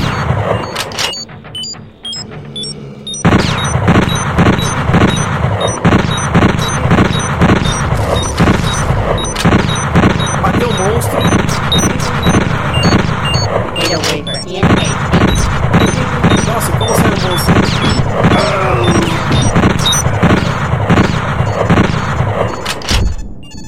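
Video game gunfire rattles off in rapid, loud bursts of shots as the player kills two or three monsters, pressing the space bar while turning toward a detector's beeps, over a dense, rumbling background, starting after a few quieter seconds and continuing almost without pause.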